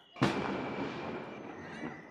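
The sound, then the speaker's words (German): A single loud firework rocket explosion bursts sharply at night in Gursuf on the Black Sea, Crimea, in autumn 2021, then its rumbling echo rolls and lingers across open space, slowly fading with a faint crackle. “Nachts schießen in Gursuf am Schwarzen Meer Feuerwerksraketen hoch, als ich im Herbst 2021 die Krim besuche.”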